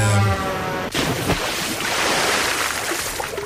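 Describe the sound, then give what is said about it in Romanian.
A brief tonal sound gives way to a sudden loud splash of someone jumping into a swimming pool, followed by a few seconds of churning, sloshing water. “Pentru că a fost un splash, așa. Îți mulțumim că ai venit la noi. Ți-am spart urechile cu no. săritura în piscină.”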